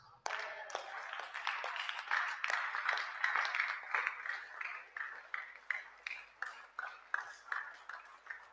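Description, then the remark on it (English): An audience claps together, starting as a dense, scattered clatter of many hands and settling into a steady rhythmic beat of sharp claps, roughly two per second, toward the end. “Oh, the way you are clapping, I, I can see you are not coming into the house the way you are clapping.”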